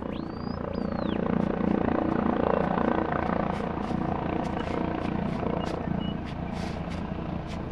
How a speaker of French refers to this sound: En m'éloignant d'une des plateformes du bloc 43, je réalise que les traces de l'extraction pétrolière sont partout, même dans les airs. Le bruit des hélicoptères couvre les sons habituels de la forêt, les chants des oiseaux, le bruit des batraciens